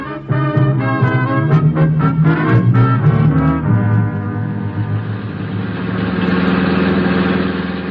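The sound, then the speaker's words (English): In the radio drama Dangerous Assignment, a car engine idles with a steady, rumbling drone that takes over after a brief musical passage, holding at a moderate, even level to the end with no talking. “Aye, my poor car.”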